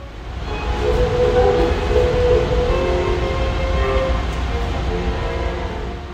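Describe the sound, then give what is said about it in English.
Classical music plays almost constantly over the public address speakers at the MacArthur Park subway station in Los Angeles, sustained tones sounding echoey beneath a steady low rumble of train and platform noise. “At LA's MacArthur Park subway station, classical music is now being broadcast over the PA system pretty much constantly.”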